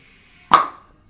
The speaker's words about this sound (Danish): Nej, det, nej, nej, oh, vi stiller den bare. Jo, det, det må man godt med en bordbom, for fanden.